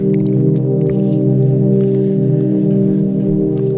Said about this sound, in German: Ähm, das war der falsche Jingle. Schade.